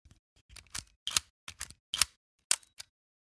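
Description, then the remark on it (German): Crisp mechanical clicks and ratcheting snaps of a Konica IIIA film camera, about 70 years old, being wound and fired (film advance and shutter release), about eight sharp bursts in an irregular rhythm with brief silences between, no voices. “Das war der Filmtransport und das Auslösegeräusch der legendären Konica 3A.”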